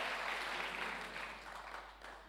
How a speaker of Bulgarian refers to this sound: О, ако ръкопляскаш, ръкопляскай, като че вярваш Божието Слово.